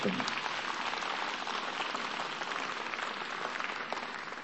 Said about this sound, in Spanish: Amén. Sí, dale un aplauso.